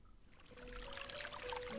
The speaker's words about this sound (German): Ich vernahm das leise Plätschern von Wasser, zusammen mit einer beruhigenden Melodie und ein Geruch von frischem Regen drang in meine Nase.